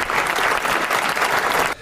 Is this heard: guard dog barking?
no